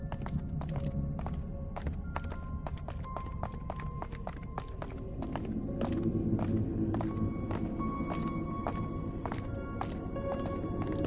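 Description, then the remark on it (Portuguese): Heavy footsteps thud up a staircase in a quick, steady rhythm, each step a sharp, solid knock over a low rumbling background, continuing throughout with no voices. “Mas a verdade é que agora vocês ouvem passos fortes subindo a escada atrás de vocês.”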